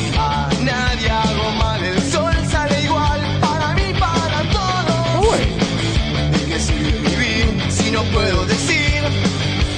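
A loud, heavy rock cover version of a song plays nonstop from an online video, its sound slightly worn, with dense distorted guitars, pounding drums and a wailing vocal line riding on top at a steady, driving tempo.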